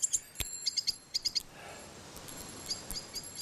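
A blackbird searching for worms gives a series of short, high chirps in quick irregular bursts over the steady soft rustling of a plum tree, with no voices.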